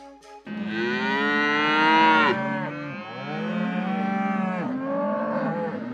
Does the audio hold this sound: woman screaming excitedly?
no